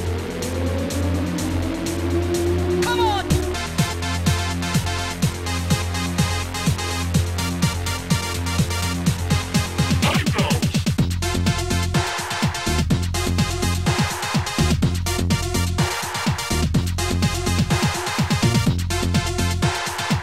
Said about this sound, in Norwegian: Litt, litt Amiga-musikk her, og kjenn igjen spillet, gutta.